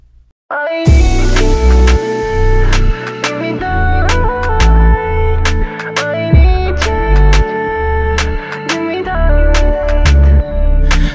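A loud, bass-heavy hip-hop beat kicks in after a brief quiet moment, with punchy kicks, crisp hi-hat and snare hits, and sustained synth tones driving a steady groove, played as an ending theme.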